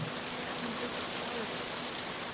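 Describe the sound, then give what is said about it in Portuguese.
Steady rain falls continuously, a dense, even hiss of drops spread across the whole clip, moderately loud, with no voices or other sounds over it; a video game sound effect. “Está chovendo, mas”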